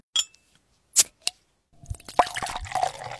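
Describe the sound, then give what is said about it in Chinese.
A few sharp clicks and pops, then a bottle of Haowangshui Wang Shanzha (hawthorn) sparkling water being poured, its dense fizzing and crackling bubbles building into a bright, steady hiss with small drips and plops. “不光是因为它味道好喝，还是因为我觉得它是气泡水嘛，气泡翻腾的声音特别治愈。”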